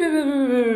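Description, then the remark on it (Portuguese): A short jingle marking a quick quiz segment: one bright, buzzy sustained note with rich overtones, sliding slightly downward in pitch and holding steady in loudness for just under a second, with no talking. “Esse foi o som da, da vinheta.”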